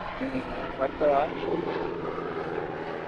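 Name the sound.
military helicopters flying overhead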